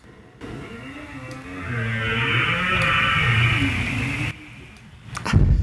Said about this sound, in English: Because that was the squeakiest door. I mean, this was a door that you would find in a Scooby Doo cartoon of squeaking.